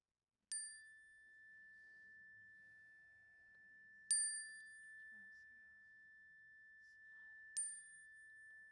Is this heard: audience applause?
no